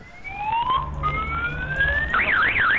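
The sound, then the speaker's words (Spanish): A loud car alarm that no one can switch off blares, cycling through rising electronic sweeps that repeat, then switching to a fast warbling tone, with low engine-like rumble underneath and no talking. “Y no podía quitarla, como mucha gente no puede quitarla, no saben cómo quitar esa alarma.”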